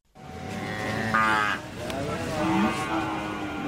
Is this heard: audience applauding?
no